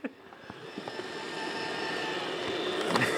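A robot vacuum cleaner running noisily while someone tries to switch it off from a phone, knocking over a broom: a steady whirring motor hum with a thin high whine, a few soft knocks early on, and the drone slowly growing a little louder. No one speaks.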